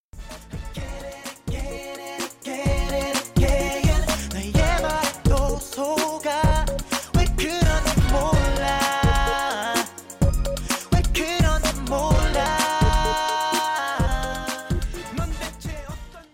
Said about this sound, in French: profitons d'une deuxième pause musicale pour écouter la chanson de …, …